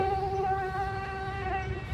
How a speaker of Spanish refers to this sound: Son los mismos detestables mosquitos que vienen persiguiendo a Vanessa Samano desde que era chica.